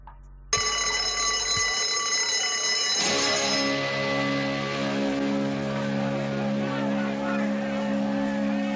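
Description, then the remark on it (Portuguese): A school bell for class starts abruptly and rings loudly and continuously for several seconds, a sustained metallic clanging with a bright, buzzing tone that fills the space until the end. “Vamos lá, que senão vai tocar.”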